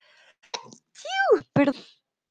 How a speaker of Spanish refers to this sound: Me imagino escuchar mi estornudo también, perdón.